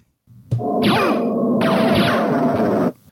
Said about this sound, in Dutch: Het geluid was de, eh, kwam uit de mobiele versie van de game Castlevania. Die onlangs is verschenen.